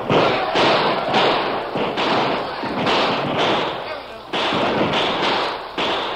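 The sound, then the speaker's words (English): A sudden outburst of gunshots from a group of men firing on mounted warriors turns into sustained, dense gunfire, sharp cracks landing every half second or so over a loud, continuous roar of noise. “The outburst of shots and the continuing fire took the Indians by surprise.”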